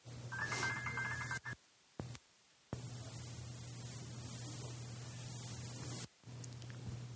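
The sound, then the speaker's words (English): A cell phone rings with a quick, bright melodic burst at the start, an incoming call from one of the organizers of GYC, then cuts off, leaving steady static and a low electrical hum broken by a few short dropouts. “Excuse me, I should have turned off my cell phone.”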